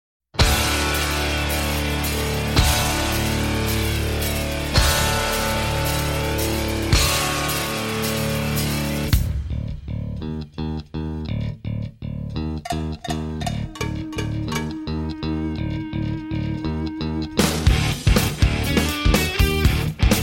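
A loud, distorted rock band with guitar in drop D tuning plays, then drops to a sparse, punchy bass guitar riff punctuated by sharp, regular cowbell hits before the full band crashes back in with the intro riff. No voices.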